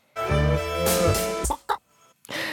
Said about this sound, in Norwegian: Men her blir det ikke bare munnharp og feite gloser på innlandsdialekt, men også en del dyrelyder, som f.eks. en autotuna ku. Og la oss høre et eh, klipp fra sangen her.